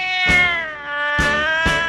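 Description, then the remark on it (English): A cat lets out loud, drawn-out meows, the wailing tone bending in pitch with a few sharper restarts, and no one speaking over it. “It chased away a dog and a cat.”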